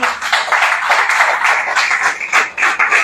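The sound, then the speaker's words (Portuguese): A church audience applauding the Lord together, a dense, steady wash of many hands clapping with slight rises and dips in loudness and no voices. “Aplauda o Senhor.”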